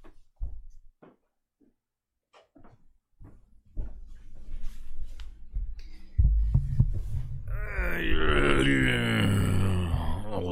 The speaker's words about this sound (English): man sit down noises.